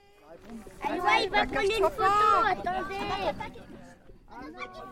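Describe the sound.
Several excited children chatter and squeal at once while walking up into the mountains at the border of the Alps and Provence in France, their high, overlapping voices loud for a few seconds before dropping briefly, then picking up again.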